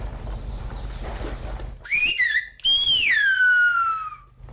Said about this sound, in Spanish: nuestro silbador, está demostrando que en realidad el silbo reproduce los sonidos de una lengua. Al principio reproducían el guanche y luego pues se adaptaron al castellano.